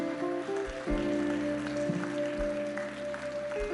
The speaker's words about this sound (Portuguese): Eu quero que aqueles que ficaram lá nos lugares, dê uma salva de palmas para essas pessoas corajosamente aqui. Em nome de Jesus.